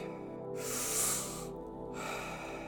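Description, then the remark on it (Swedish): Deep, forceful breaths during a breathing exercise, a long airy inhale and exhale rushing in and out in a steady rhythm, with no talking. “In, ut. In, ut. Fem kvar nu. Vi ger allt vi har. Fullt fokus. Djupa andetag.”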